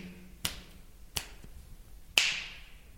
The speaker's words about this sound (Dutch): Nou, als we met onze vingers knippen, dan hoor je dat het dus heel erg galmt.